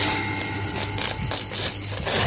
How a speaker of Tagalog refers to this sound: Natulog sila at makalipas lang daw ng ilang oras ay biglang tumunog ang bentilador dahil sumabit doon ang damit na binili ni Odette.